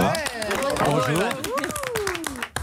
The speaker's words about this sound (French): On applaudit bonjour.